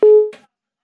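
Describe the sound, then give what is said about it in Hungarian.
A single loud telephone busy-tone beep sounds after the caller hung up the phone. It is steady and pitched, lasts a fraction of a second and fades, followed by a faint short click and then silence. “itt Fennforgás van, mert hogy letette Kirchner Péter a telefont”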